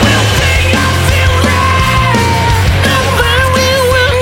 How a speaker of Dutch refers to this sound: En eh, eh, ja, hele lekkere plaat met dit soort, dit soort geschreeuw.